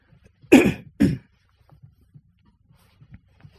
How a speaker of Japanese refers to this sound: ちょっと咳払い失礼します。